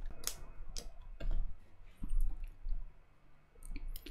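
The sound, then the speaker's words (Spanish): Several quiet, sharp clicks scattered irregularly across a few seconds, a computer mouse being clicked while setting up the text of a third email in an automated email sequence, with soft low rumble in between and no talking. “Damos clic en texto y selecciono el mensaje que va a tener este tercer correo.”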